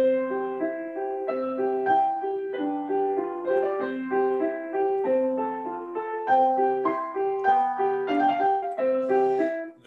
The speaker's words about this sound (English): the seven year old child plays the piano, you know exactly what I'm saying. It sounds like this.